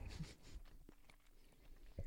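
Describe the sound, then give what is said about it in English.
Close-up wet chewing of a dry Krave rosemary lemon turkey meat stick with white beans, with irregular mouth clicks and crunchy bites right against the microphone, no talking. “It's like a ham, a turkey, a beef stick. That I'm chewing like right into the microphone.”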